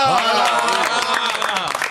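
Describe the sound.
A few hosts clap in a studio in a quick, uneven burst while voices whoop and call out over the applause the whole time.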